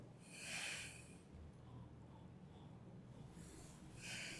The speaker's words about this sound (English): Give give it one more uh, sniff, you know, uh, just akha chimliera. Are you getting any peat or smoke?